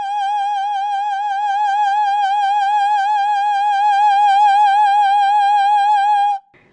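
human body sound, a scream

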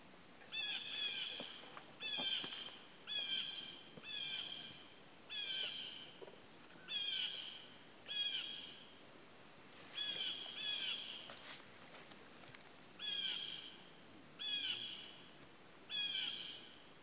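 bird, blue jay calling

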